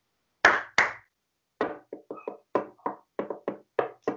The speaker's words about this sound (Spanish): ¿Puedo, tocar las palmas y también la caja flamenca, que me gusta mucho?